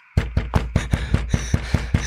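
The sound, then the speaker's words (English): Rapid, heavy banging on a petrol station door, about ten hard thuds in a steady, urgent rhythm, loud, with no voices, as someone who has run to the station bangs on the door. “runs to the petrol station and bangs on the door.”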